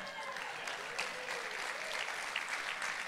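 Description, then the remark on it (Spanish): A church audience applauding the pianist as he comes up to play, in a steady, dense wash of clapping that holds at an even loudness throughout, with a few sharper claps standing out and no clear voices above it. “¿Ves cómo te aplauden cuando tú entras a tocar?”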